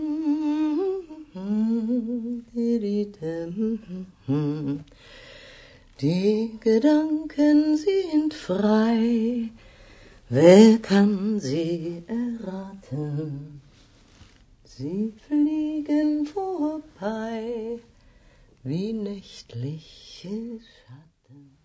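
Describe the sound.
A woman of about forty, whose hobby is singing, sings a German folk song alone and unaccompanied, her clear voice holding sustained notes in steady phrases separated by short breaths, at moderate volume.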